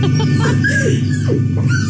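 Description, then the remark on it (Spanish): A dog whines in several high, wavering cries that slide downward in pitch, heard over a steady low hum of background noise with no one talking. “Oigan, ¿viste pero, cómo llora el perro”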